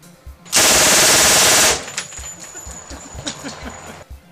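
A loud, harsh burst of rapid gunfire lasting about a second, followed by a thin high-pitched ricochet whine that rings on and slowly fades beneath scattered faint clicks.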